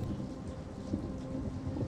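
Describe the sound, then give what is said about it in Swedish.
Deep, rolling thunder rumbles steadily beneath a dense hiss of heavy rain shortly after lightning strikes outside, filling the short stretch with loud storm noise and no one speaking. “En blixt slår ner utanför och kort därefter hör den här också åskknallen och eh, det skallrar nästan i fönstren.”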